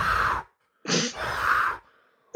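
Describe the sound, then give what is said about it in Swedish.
Heavy, breathy panting in a few ragged gasps, fairly loud, with short pauses between breaths and a faint rumbling hum underneath; the panting comes from the pipes of a house. “Och det, det är någon slags flåsande som kommer från, från, från rören.”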